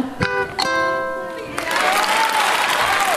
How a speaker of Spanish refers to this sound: Un aplauso. aplauso para, don Satur, el asistente.